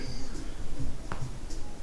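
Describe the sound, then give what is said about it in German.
A single quiet crack of a person's foot joint in a living room, a short dry click standing alone against faint room noise with no one talking. “Das war ein Knacken von meinem Fuß.”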